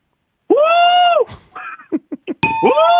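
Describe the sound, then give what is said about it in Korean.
A caller on a phone-in show imitates a Korean water deer (gorani): a loud, shrill, drawn-out cry, then a few short sharp yelps and another long piercing scream, with no other sounds. “성대모사, 저 일단 고라니 소리요.”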